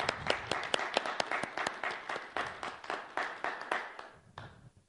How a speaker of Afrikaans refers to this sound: So kom ons mans gee vir die vrouens elkeen 'n lekker warm hande klap.